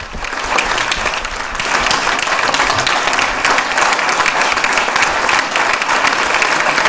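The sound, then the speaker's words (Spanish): An audience applauds Francisco Igea steadily, a dense, crackling wash of many hands clapping at once that holds at an even, loud level for the whole stretch, with no voices standing out. “Están aplaudiendo a Francisco IGEA.”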